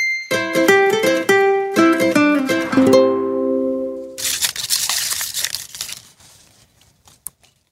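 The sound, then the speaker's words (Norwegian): A short melodic jingle of stepped tones plays, then busy crinkling and rustling of paper slips being rummaged in a quiz question bucket to draw the day's first category, lasting a couple of seconds before fading to quiet. No talking. “da henter du spørsmålsbøtta, da, Erika, for vi skal nemlig trekke dagens første kategori”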